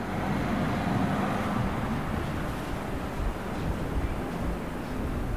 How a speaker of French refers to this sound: J'entends un bus.